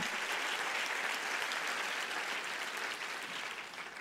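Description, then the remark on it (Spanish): A crowd applauds steadily, giving the applause to the Lord, dense overlapping claps filling the space at a strong, even level before easing off slightly toward the end. “Dele mejor ese aplauso al Señor.”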